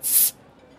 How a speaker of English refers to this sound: Pop a bottle.